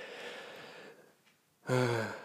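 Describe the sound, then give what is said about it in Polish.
A breathy sniff drawn in through the nose, lasting under a second, followed by a short pause before a voice starts speaking. “Będzie czasami słychać, że ciągnę nosem.”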